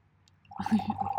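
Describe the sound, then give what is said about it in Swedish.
Coffee is poured into a glass, a short gurgling, bubbling fill that starts abruptly after a brief quiet moment and stays fairly loud until the end. “häller upp kaffe i ett glas fast han hävdar att han inte tycker om kaffe.”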